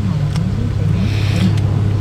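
A Porsche 911 (991 GTS) sports car engine hums in a steady, low drone that holds an even pitch throughout, with a couple of brief hissy bursts on top, as if heard from inside the moving car during a group drive.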